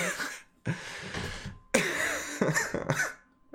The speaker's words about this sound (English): oh gosh, it's gonna make me like make me cough. I'm laughing too much from this.